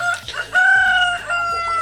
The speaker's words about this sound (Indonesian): mohon maaf ada suara ayam oke okay, baik uh, lebih lebih alami ya lebih lebih uh, ini ya Baik kayaknya lu punya ternak ayam deh enggak tetangga gue cuy oh, tetangga oke okay, tetangga mohon maaf